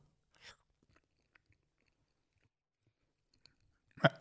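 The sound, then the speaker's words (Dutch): Someone bites into a young, fresh goat cheese with a wrinkled rind: a brief rustle, a few faint moist clicks of chewing, then a sharp, loud bite sound near the end, with no talking. “Gaat ie. Hapje.”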